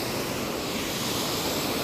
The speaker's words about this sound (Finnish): No niin, minä olen tässä kosken vieressä. Ja mä keskityn nyt kuvaamaan tätä välillä.